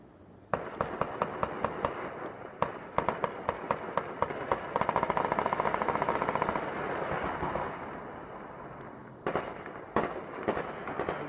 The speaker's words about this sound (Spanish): ¿Podemos escuchar la balacera? ¿La podemos, ¿Lo podemos escuchar ahorita? Me dicen, miren, oigan.